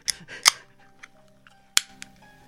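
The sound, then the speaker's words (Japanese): An energy drink can is cracked open: a short fizzy hiss with a sharp metallic snap of the tab, followed a moment later by another crisp click, with no voices. “おビールですかコロナ 何何倒す エナジーエナジードリンクでコロナを倒すぞっていう”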